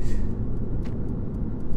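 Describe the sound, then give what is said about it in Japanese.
Steady low road rumble fills the inside of a car being driven on a commute, a constant dull drone with faint, evenly spaced ticks above it and no one talking. “なんていうか手持ち無沙汰じゃないですけども口がね開いてるんですよ車の運転中って”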